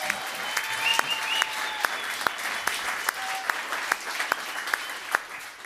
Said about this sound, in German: Einmal bitte den Applaus für Terry Halliburton. Einmal bitte den Applaus für Mahmoud Abdul Rauf. Und einmal bitte den Applaus für Bulls-Spieler DeMar DeRozan bei den Raptors.